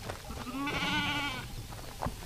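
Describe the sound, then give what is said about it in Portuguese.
A sheep lets out one wavering, drawn-out bleat lasting about a second, clear, with quiet shuffling noises before and after it, as it is caught, thrown down and sheared on a platform by Uruguayan shearers using the Australian method, under a green shade net in 40-degree May heat. “A ovelha eh, é, é apanhada e derrubada com uma técnica especial que não compromete o bem-estar animal e depois é, é, posicionada no estrado onde é efetuada a desquia, é?”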